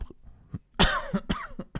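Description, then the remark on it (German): A short burst of coughing, several harsh coughs in quick succession with a brief throat-clearing rasp, loud, with no talking over it. “Gut, dass ich jetzt husten musste.”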